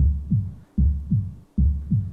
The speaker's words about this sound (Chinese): 心跳，一下，两下，